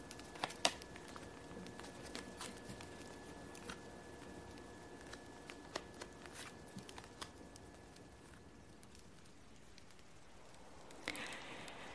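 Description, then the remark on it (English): Quiet shuffling and turning of picture cards by a fire: scattered soft flicks and taps in an irregular patter, with a brief fuller rustle near the end and no voices. “So let's get warmed up by the fire and I'll just shuffle some cards have the images and hopefully the sounds of me turning them and shuffling will make us sleepy.”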